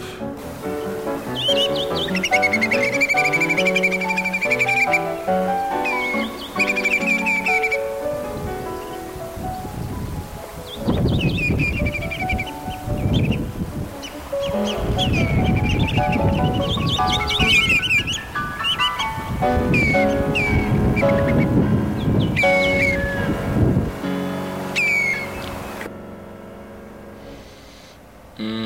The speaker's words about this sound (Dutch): En onder de prachtige tonen van Maurice Ravel luisteren we naar de even prachtige regenwulp.